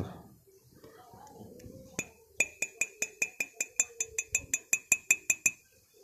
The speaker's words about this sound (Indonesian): suara gelas nih suara gelas nih nah, tuh gelas bening suara kayak gitu tuh